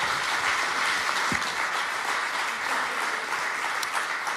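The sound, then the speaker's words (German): Steady, dense applause from an audience at a church service after a sermon, as two people come up on stage: a continuous wash of many hands clapping at an even, fairly loud level for several seconds without pause. “Gebt ihnen einen fetten Applaus.”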